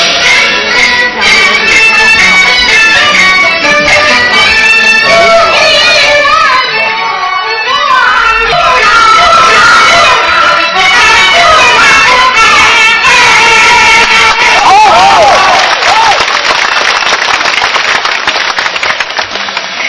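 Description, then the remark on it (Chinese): A live recording of famous Peking opera artist Mei Baojiu singing Hong Zong Lie Ma (The Red-Maned Steed), with a high, ornamented singing voice gliding over dense string accompaniment and sharp clattering percussion, loud and continuous for the whole stretch. “我们刚才听到的是著名的京剧表演艺术家梅葆玖先生现场演唱的《红鬃烈马》的录音。”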